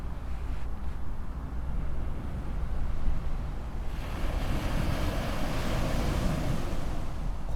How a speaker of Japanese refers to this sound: 特にさ喋らなくてもいい感じでしょ波の音聞いてるだけでも。